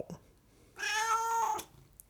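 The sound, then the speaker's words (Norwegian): A single drawn-out meow, voiced by a person imitating a cat as an answer in a quiz, rising and holding for under a second. It comes through clearly and alone, with quiet gaps before and after. “Spørsmål fem, og da er ja ett mjau og nei to.”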